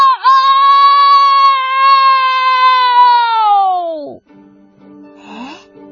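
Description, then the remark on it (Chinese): A rooster crows once from the top of a haystack at sunrise, a loud, long, high call held steady for about four seconds before sliding down and cutting off, leaving faint low murmuring sounds afterward. “奇迹出现了，随着皮迪克的打鸣声，一轮红日从天边冉冉升起。”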